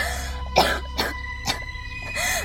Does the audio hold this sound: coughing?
yes